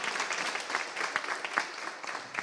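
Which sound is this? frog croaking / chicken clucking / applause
applause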